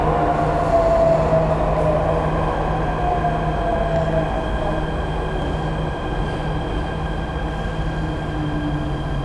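A Jakarta MRT subway train runs steadily toward Senayan station with a constant low rumble and droning hum, faint high-pitched wheel squeal gliding in and out. No one speaks.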